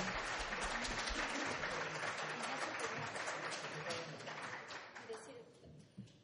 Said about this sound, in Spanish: Pero un aplauso para él. Un aplauso para este hermoso trabajo.